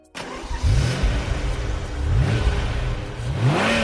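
A car engine kicks into life and keeps running loudly, its pitch rising in three separate revs as it accelerates. No voices are heard.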